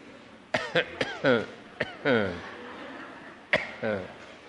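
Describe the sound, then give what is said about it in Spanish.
A person coughs repeatedly in short, raspy bursts, grouped into a few clusters with brief pauses between, some coughs trailing into a throaty, voiced rasp. “Me da tos cuando siento que no todos.”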